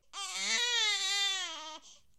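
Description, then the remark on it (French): A hungry baby lets out a single loud, sustained wail lasting under two seconds, with a brief whimper trailing off at the end and no talking. “Ah, mais qu'est-ce que j'entends On dirait que bébé a faim.”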